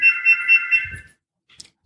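A phone ringtone sounds in four quick, high-pitched electronic pulses, fairly loud, then cuts off, followed by a faint short click.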